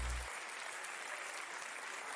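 A steady burst of applause from a crowd, dense and continuous clapping filling the whole short stretch at an even, moderately loud level, with no voices standing out.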